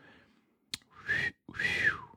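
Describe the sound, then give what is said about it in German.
A person gives an appreciative two-part whistle, a short rising note followed by a longer one that swoops up and falls away, loud, with no talking. “Also da pfeife ich ja hinterher, wenn da so eine Rosenkohler Köhlerin langläuft.”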